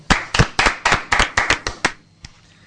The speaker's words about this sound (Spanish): Un aplauso